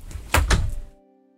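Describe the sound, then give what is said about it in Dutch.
A studio door is pushed shut, making two quick solid thumps in succession, then the room settles into a quiet low hum. “Um, ehm, ik de deur doen?”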